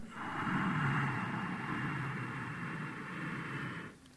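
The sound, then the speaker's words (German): A long, steady hissing inhalation through a slightly closed glottis, fairly loud, lasting about four seconds before tapering off, done as a breathing exercise after a deep, full exhalation. No speech accompanies it. “Dann schließt die Stimmritze leicht, erzeugt diesen Hauchklang beim Einatmen.”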